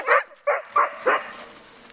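Four quick, sharp barks from two excited Lagotto Romagnolo truffle-hunting dogs ring out in a rapid, slightly uneven series, then fade into quiet outdoor background with no talking.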